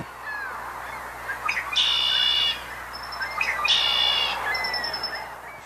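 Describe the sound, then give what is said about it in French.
A red-winged blackbird sings twice, each song opening with brief clipped notes and ending in a buzzy, ringing trill. It is clear over soft outdoor ambience, with no talking. “Alors, donc, le chant qu'on a entendu tout à l'heure, c'est le cas rouge, c'est ça? Oui, le carreau de l'épaulette.”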